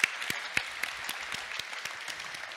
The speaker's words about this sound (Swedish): men det är väl värt en applåd, tycker jag. Ja, verkligen.